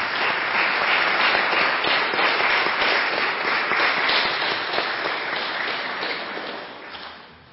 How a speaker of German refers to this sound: Schön, dass ihr wieder dabei seid und ich denke, einen Applaus habt ihr schon im Voraus verdient.